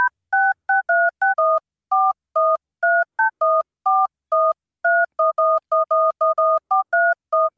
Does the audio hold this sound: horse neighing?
no